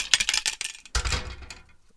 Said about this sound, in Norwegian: Det her er lyden av eh, at jeg drar ut en ispigg. Ja, det ser jeg. Det er ispigger.